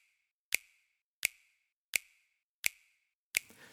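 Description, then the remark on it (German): A crisp finger snap sample repeats five times at a steady, even pace, running throughout a music mix, each one sharp and bright with a short tail, the last followed by a brief noisy burst. No voices. “Also, wir haben zunächst einmal diesen einen Klatscher hier, der hier die ganze Zeit durchgeht, diesen Schnipser.”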